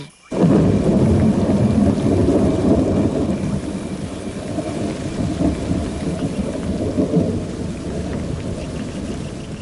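A tropical thunderstorm rumbles with deep, rolling thunder over steady, heavy rain, loud, filling the whole stretch without any voices.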